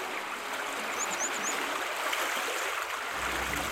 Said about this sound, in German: Wir überqueren die Straße vor der Zausermühle und schau an, da plätschert das Rinnsal aus einem Meter Höhe in einen breiten Stadtbach.